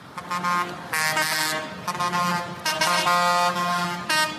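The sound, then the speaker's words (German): Loud, overlapping tractor horns blare continuously from angry farmers protesting agricultural policy in Berlin, Germany, several honking at once in long sustained blasts with bursts of higher tones, amid a rumbling column of large farm machines, no one speaking. “Ja, so klingen wütende Traktorfahrerinnen und Traktorfahrer.”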